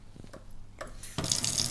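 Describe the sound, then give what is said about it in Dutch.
A couple of soft clicks and knocks, then a cold water tap opens and water gushes steadily in a broad hiss, fairly loud, with no one talking. “Oké, nu ga ik koud water pakken.”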